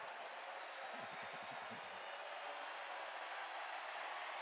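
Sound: arena crowd cheering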